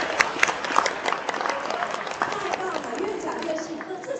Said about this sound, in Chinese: 我们给爱多美一个热烈的掌声。